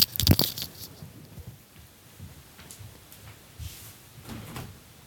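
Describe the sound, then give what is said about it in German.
A door is opened to let in a friend who forgot his key, starting with a sharp latch clack and a thud, then quieter rattles and soft shuffling movement for a few seconds, with no one speaking. “nur meinen, meinen Freund gerade Dann. reinlassen, der hat seinen Schlüssel vergessen.”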